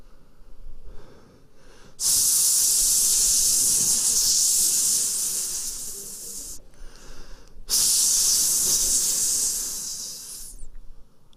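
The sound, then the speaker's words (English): Air is let out of the tires of 10-speed bicycles by Pastor Rico at a barn at midnight, hissing out in two long, loud bursts, each a steady high-pitched rush that slowly eases off, separated by a short pause, with a faint low rumble underneath. “takes the air off the tires.”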